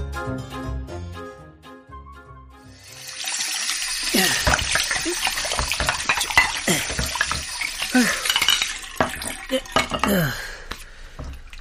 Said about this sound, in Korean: 아, 아, 손님들이 한꺼번에 몰리니까 설거지도 엄청 오래 걸리네요.